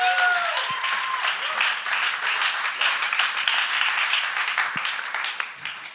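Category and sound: crowd, audience applause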